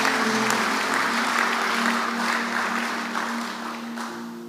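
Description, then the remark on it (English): An audience claps together as a clap offering to the Lord, a steady, dense wash of applause that holds for several seconds, then tapers off slightly. A low, sustained hum sits underneath the clapping. “Give the Lord a good clap offering someone.”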